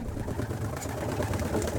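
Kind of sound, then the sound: bird, pigeon or dove cooing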